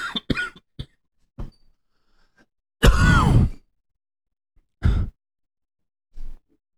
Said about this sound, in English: you hear someone cough and they're like, okay.